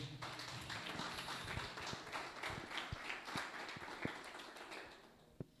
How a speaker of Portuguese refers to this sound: A igreja diz amém. Vamos recebê-lo aplaudindo o Senhor.